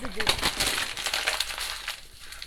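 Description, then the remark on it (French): Chocolate wrapper paper crinkling steadily, a dense run of crisp crackles and rustles that softens toward the end, with a brief murmur of voice at the start. “Il a rentré le papier du chocolat dans la boîte et le papier, il est ressorti, il a traversé la table.”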